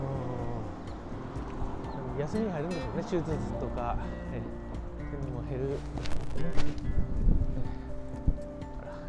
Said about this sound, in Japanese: すいませんちょっと車の音がうるさかったり、えー、聞こえますかね